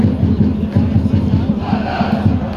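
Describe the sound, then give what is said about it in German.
Football fans of Block H chant in unison from a stadium stand at an SV Atlas Delmenhorst match against Oldenburg, a loud, steady rhythmic roar of many voices pulsing in repeated beats with a low, dense crowd rumble underneath. “Und äh, hinter uns hört man den Block H.”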